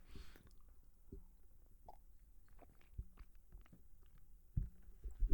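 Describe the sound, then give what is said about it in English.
Someone takes a drink of water: a few soft, low gulping thumps spaced irregularly, with faint mouth and swallowing noises between them and no talking. “I had to get a drink of water there.”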